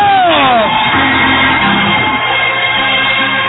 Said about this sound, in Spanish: Dale, dale, dale la gloria. Ponte de pie y dale oración, un grito de júbilo.